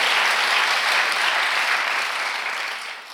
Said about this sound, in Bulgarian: Ако ръкопляскаш, ръкопляскай, че си вярваш.